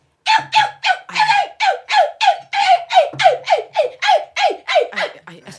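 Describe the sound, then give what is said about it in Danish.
A voice imitates a small dog tied on a leash to a hook outside a beauty shop whining: a rapid series of about sixteen short, high, nasal yelps in a steady rhythm, each sliding downward in pitch, fairly loud with no other sound. “herhen går forbi en forretning, hvor der udenfor står en lille hund øh, i, i, i snor på krog, ja.”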